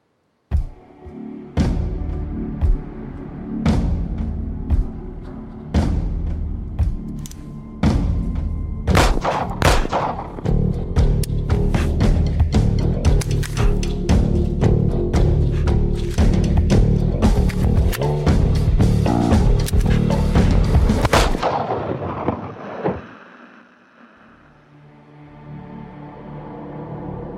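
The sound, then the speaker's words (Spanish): Video game combat audio from Arizona Sunshine, a Steam VR game where the player shoots waves of zombies: repeated gunshots cracking over a dense, rumbling soundtrack, firing growing rapid and heavy before abruptly cutting to a quieter, low ambient tail. “lo que escucháis es Arizona Sunshine, un nuevo juego para Steam VR que llegará a finales de año y que aprovechará el sistema de Lighthouse, es decir, podremos recorrer nuestra habitación y, disparar contra oleadas de zombies”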